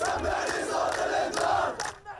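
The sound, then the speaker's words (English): A large crowd protesting against Israel's moves chants together, a loud, dense roar of many voices pulsing in rhythmic surges roughly every half second, with sharper shouted accents on each beat. “As crowds protest against Israel's moves in some cities around the world, including neighboring Jordan,”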